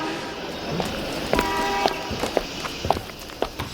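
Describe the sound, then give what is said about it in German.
Steady footsteps walk at an even pace into a shop, about five moderately loud steps, with a brief ringing tone sounding near the start of the steps. “Aber gehen wir doch ins Geschäft.”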